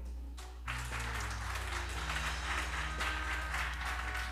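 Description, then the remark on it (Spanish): An audience at a Christian service breaks into loud, sustained applause for the Lord after a brief quiet start, many hands clapping in a dense, steady wash with a low hum beneath it. “¿Quién le da un fuerte aplauso al Señor?”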